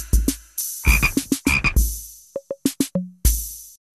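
A frog croaks repeatedly in quick, uneven bursts, loud, with short raspy calls and a few brief chirping notes near the end, and no voices present.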